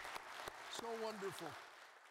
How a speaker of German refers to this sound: Geben wir ihnen doch einen Applaus, auch wenn sie die Bühne schon verlassen haben. Das ist wunderbar.